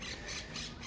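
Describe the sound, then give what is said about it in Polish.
Green parrots squawk in harsh, rapid bursts, about four shrill calls in a second, fairly loud, from trees in a park in the afternoon, over a steady outdoor wash of background noise with no one talking. “Y, kolorowe papugi i te zielone, y, takie lokalne, które my też mamy akurat pod naszym domem.”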